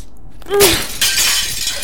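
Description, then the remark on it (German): A single sharp crash of a window pane smashed with a stone, a bright burst of breaking glass followed by a second clatter of shards, loud with no talking. “Ich, ich brauche irgendwas, um die Fensterscheibe einzuschlagen. Ja, dieser Stein.”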